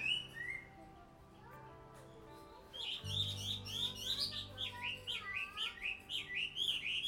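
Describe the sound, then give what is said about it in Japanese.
Birds call and chirp outdoors, starting with a faint whistle and then a continuous run of rapid, warbling chirps that rise and fall, over a low steady background hum. “鳥さんがすごい泣いてるので録音できるかなこんな泣き方する鳥さん知らないですよ私。”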